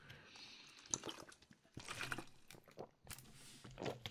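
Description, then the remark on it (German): Quiet sips of water: a few soft slurping and swallowing sounds in short bursts, with brief pauses between them and no talking. “Äh, ich nehme mal einen Schluck Wasser mach mal kurze Pause an der Stelle hier.”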